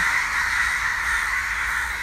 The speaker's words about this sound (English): Okay, about 60 birds in the palm trees just calling to each other.